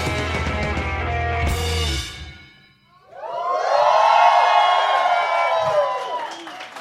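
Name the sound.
applause and cheering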